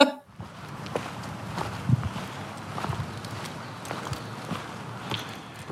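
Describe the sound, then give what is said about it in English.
Steady footsteps crunch along an outdoor dirt trail about halfway up a steep hill toward the top of the Houghton Land Preserve, in an even walking rhythm of roughly one step per second over a soft background rustle. “it looks like I'm about halfway up the initial hill uh, to the top of the Houghton Land Preserve.”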